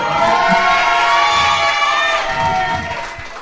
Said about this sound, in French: Alors il va falloir crier encore plus fort Argenteuil.